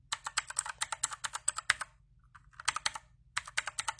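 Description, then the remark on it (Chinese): Rapid typing on a mechanical keyboard with light switches: a quick stream of crisp, sharp key clicks, a brief pause in the middle, then another burst of keystrokes. No one speaks. “买到一个很不错的一个键盘，轻轴的。”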